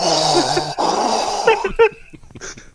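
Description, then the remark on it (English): Someone loudly imitates heavy, wheezy breathing through the nose: a long raspy inhale-exhale, then a few short snorting puffs. “I don't want to say it's exclusive up there, but it's definitely prevalent fucking the Northern Heavy Breather Society.”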